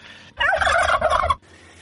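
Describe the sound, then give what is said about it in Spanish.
A turkey lets out one loud, rapid gobble lasting about a second, a bubbling, warbling call that stands alone against near silence before and after. “y me hincho un poquito así el pecho como los pavos.”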